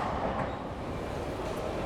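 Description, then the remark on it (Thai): Steady rumbling noise of a moving train in France heard from inside a carriage, the last train of the trip, a continuous low roar at even loudness with no voices. “เสียงประกาศบนรถไฟของฝรั่งเศสก็ดังขึ้นมาแทนที่ ซึ่งนั่นเป็นการบอกให้รู้ว่าเราต้องลงที่สถานีต่อไป เพื่อเดินทางไปยังสนามบิน เราลุกขึ้นเตรียมแบกกระเป๋าขึ้นหลัง แต่เดี๋ยวก่อน นี่มันขบวนรถไฟสุดท้ายในทริปนี้แล้วนี่”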